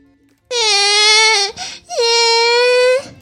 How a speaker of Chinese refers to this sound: 正走到公园时，便听见…的哭声。